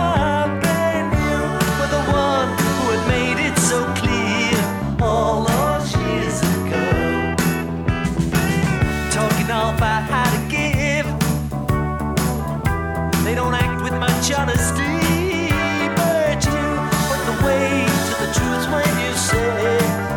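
An upbeat pop rock song plays at a steady, full volume, with a singing voice over guitars, bass and drums for the whole stretch, and no talking over it.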